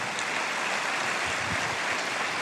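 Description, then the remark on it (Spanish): An audience claps steadily throughout, a dense, even wash of many hands with no voices on top, holding the same moderate loudness from start to finish. “Alguien tiene que aplaudir más que eso si lo cree.”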